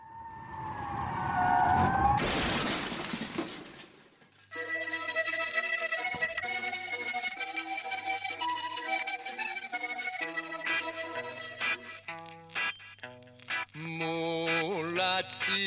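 A screech of skidding tires and a crash burst open a rock and trot fusion song, which then plays steadily and loudly with a full band, thumping bass and bright melodic lines.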